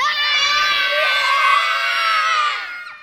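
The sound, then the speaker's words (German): A group of children shout together as loudly as they can on a count of three, in one sustained, high-pitched yell lasting a couple of seconds, then fading out abruptly. “Und nochmal auf drei, so laut wir können, aus voller Kehle.”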